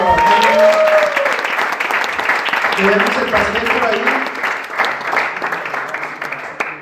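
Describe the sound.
A group applauds steadily for several seconds, a dense wash of clapping that gradually thins out, while people talk and call out over it.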